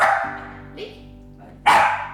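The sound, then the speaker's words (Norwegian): A dog barks twice, loud, with a sharp bark at the start and another after a short pause, plus a faint yip in between. “Men som vi husker og hører”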